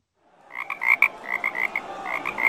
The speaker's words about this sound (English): This week's frog, which will be presented by ….